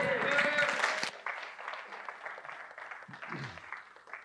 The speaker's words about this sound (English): Well, praise God. Will you guys give God a round of applause, please?